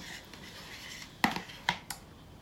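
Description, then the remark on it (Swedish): Coffee poured into a bowl and mascarpone spooned in: a soft, hissing wash of sound, then three sharp clinks and knocks of a utensil against the bowl, the last two quicker together. No one speaks. “Och då är det så smidigt att då tar vi och slänger ihop allt det här i en bunke och vi börjar med att hälla i eh, kaffen och sen lägger vi ner mascarponeosten.”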